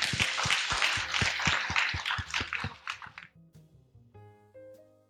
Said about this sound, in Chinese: 那最后我建议我们再次以掌声感谢我们今天三位嘉宾。